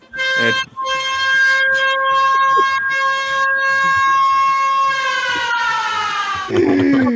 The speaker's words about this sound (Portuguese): Esse alarme aí é sem futuro demais, velho. Se tocar, fudeu. Esse aí é o alarme da meia-noite.